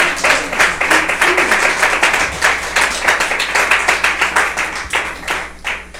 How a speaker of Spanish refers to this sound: La gran ofrenda de palmas, pues, al Señor.